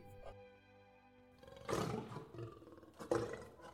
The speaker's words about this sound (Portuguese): Olá! rugiu o leão.